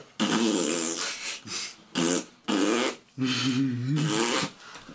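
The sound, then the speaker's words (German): A voice imitates a sloppy fart with a series of five wet, buzzing bursts of varying length, loud, with short gaps between them and no other talking. “Möchtest du uns sagen, dass das ein Furz ist? Ein schlabberiger.”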